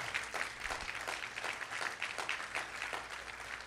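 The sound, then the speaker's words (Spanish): An audience applauds for the Lord at a church service in a dense, steady wash of clapping that holds an even loudness throughout, with a loose rhythmic pulse running through it and no voices. “Si usted lo cree, dele su mejor aplauso al Señor.”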